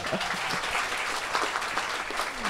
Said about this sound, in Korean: 뭐 손님을 위해서 박수 한번. 예.